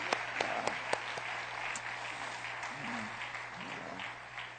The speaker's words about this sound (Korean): 우리 단합 한번 큰 박수로 격려하겠습니다. 우리 아이들 한번 큰 박수로 격려하겠습니다.